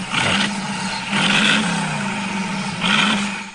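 A car engine revs loudly, with a steady low rumble and three sharp throttle bursts, each roaring briefly before settling back to idle.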